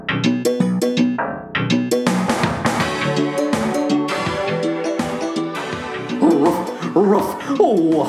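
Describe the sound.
A loud human voice mimics a dog, playing Sandy the dog from the musical in a sponsor spot for 5678 Coffee: a quick run of short, sharp barks, then longer yelps and whiny, sliding whimpers without any ordinary speech.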